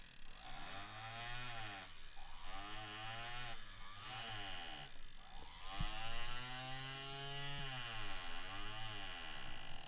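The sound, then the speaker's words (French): A small pneumatic jeweler's hammer buzzes in rapid, continuous bursts, its pitch rising and dipping with each short stroke sequence, steady without any talking, as it hammers metal down around a stone to lock it in a closed setting. “Nous venons d'utiliser le marteleur pour rabattre le métal autour de la pierre afin qu'elle soit emprisonnée et qu'elle ne puisse plus s'échapper.”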